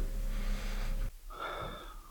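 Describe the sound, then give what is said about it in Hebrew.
A deep, audible breath drawn in, a long airy inhale followed by a shorter breathy exhale, with no speech. “כן, את הנשימה הזאת לקחנו גם כשהוא סיפר לנו את זה.”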